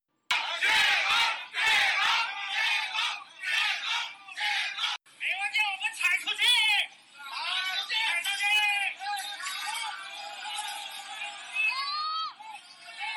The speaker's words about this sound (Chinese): 上周末，深圳市华强花园、牛巷坊等地的居民不满封控措施，在小区示威抗议。要求当局立即解封，现场人士摇动手机大喊“解封”，一度想推翻铁栅栏围墙，气氛热烈。